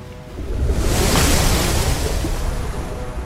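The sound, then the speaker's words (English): Churning sea water surges and splashes in a loud, continuous rush, swelling in the first second and then holding steady with a rough, turbulent roar, as the sea swells and the water rises and explodes in a great splash in front of Banoi's boat. “The sea began to churn and swell up, and the water rose above, towering in front of Banoi's boat, and exploded with a great splash.”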